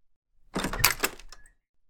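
A grandmother opens a pantry door, with a quick clatter of latch and handle rattling, then a short high creak as it swings. No voices are heard.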